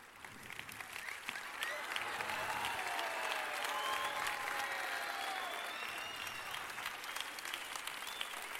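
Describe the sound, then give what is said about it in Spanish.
Sustained audience applause welcoming Cristina Pedroche to give the year-end bell chimes, a dense rush of many hands clapping at a steady, fairly loud level throughout, with faint whoops or cheers rising above it in the middle. “Cristina Pedroche, aplausos, por favor.”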